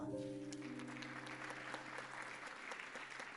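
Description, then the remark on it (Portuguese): An audience breaks into steady applause for the Lord, a dense wash of many hands clapping that holds at an even level, while a sustained low tone at the start fades away beneath it. “Aplauda ao Senhor.”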